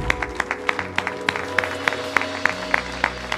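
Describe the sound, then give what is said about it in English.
A church audience claps together after a closing prayer in a steady, unified rhythm, about a dozen crisp claps evenly spaced, over a soft sustained musical tone underneath. “Come on, let's clap together.”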